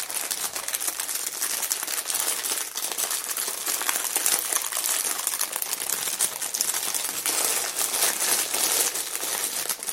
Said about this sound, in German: Kümmern wir uns jetzt mal um das Gehäuse. Ich pack's mal aus, ich mache mal die Tüte auf